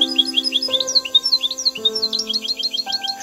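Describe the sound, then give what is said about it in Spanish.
A bird sings a steady run of quick, high chirps and trills, clear, over soft sustained musical chords that shift every second or so. “Alabado seas mi Dios por ese canto tan gracioso.”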